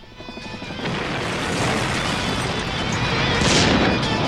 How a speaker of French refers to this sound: Michael Bay presents Explosions.